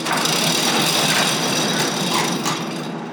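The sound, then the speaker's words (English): A garage door at a weather service balloon launch site rolls open to bring out a weather balloon, with a steady, fairly loud mechanical rattle and grinding that runs unbroken for a few seconds, with no one talking. “And the balloon is too big to bring out of the door that we walked in, so you've got to use this garage door.”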